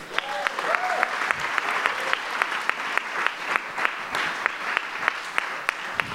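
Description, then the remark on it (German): An audience claps steadily for several seconds for the volunteers, a dense wash of hand claps with a few sharper, louder claps standing out; no one speaks over it. “Hammer, können wir den Freiwilligen einen riesengroßen Applaus geben?”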